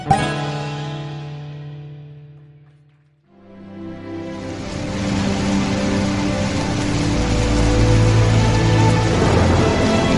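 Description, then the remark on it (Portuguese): A sustained musical chord fades away, then a steady hiss of falling rain swells in and keeps going loudly, with faint tonal music still lingering underneath. “Sentado em seu quarto, deslumbrando pela janela o fim desse dia de chuva, esse é o pôr do sol mais demorado de toda a sua vida.”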